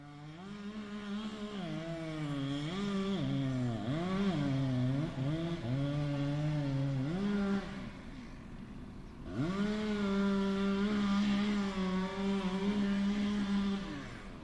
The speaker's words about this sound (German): Ich höre immer wieder Kettensägen im nahen Waldgebiet. Es liegt eine gewisse Geschäftigkeit in der Luft.